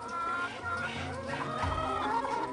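Several chickens, rescued birds from a farm, cluck and murmur together, a busy, continuous flock chatter with overlapping calls and no talking.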